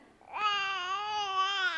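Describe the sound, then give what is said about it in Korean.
An infant's sustained wail from inside a reed basket rises after a soft, murmuring start, holding a strong, steady pitch. No talking over it, just one continuous cry with babbling at the beginning. “저 상자에서 아기 소리가 나고 있어.”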